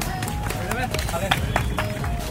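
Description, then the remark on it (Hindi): A handful of uneven hand claps, moderately loud, scattered over a couple of seconds with people's voices and background noise continuing underneath. Clapping in praise after someone sings. “क्या बात है क्या बात है बहुत बढ़िया है ताली बजा दो”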